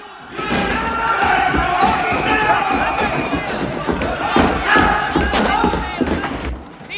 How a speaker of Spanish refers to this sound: Los soldados suben por los corredores pateando las puertas.